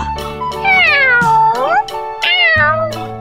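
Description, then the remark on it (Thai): A cat meows twice, long drawn-out cries with rising and falling pitch, fairly loud, with a brief pause between them and no one talking. The cat has run home and meows while rubbing against its owner's legs. “เจ้าแมวรีบวิ่งมาถึงบ้านก่อนร้องเหมียวเหมียวไปมาราแข้งเคล้าขา ประจบเจ้าของอยู่นั่นเอง”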